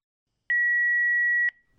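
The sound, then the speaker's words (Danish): A single steady electronic beep, clear, holding one pitch for about a second before cutting off into quiet: the tone of an automatic telephone answering machine signaling the start of a voicemail recording. “Du har ringet til Fomedics automatiske telefonsvar.”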